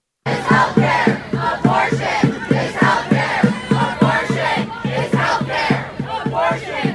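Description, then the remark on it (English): A large crowd of abortion-rights supporters chants in unison, voices rising and falling in a steady repeating rhythm of protest slogans such as "abortion is health care," loud, filling the whole stretch without pause. “And but the abortionists were chanting something very different and it, not the abortionists, but the pro abort people that gathered there. And this is clip one. Let's listen to that.”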